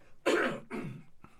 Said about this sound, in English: So, um, hang on a second. I got to hit the cough button.